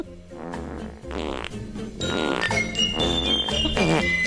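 A rapid string of loud, buzzy fart sounds from a Uruguayan man after eating eight plates of lentil stew, several blasts in quick succession with wet, flapping texture, prominent, plus a faint tinkling tone in the background.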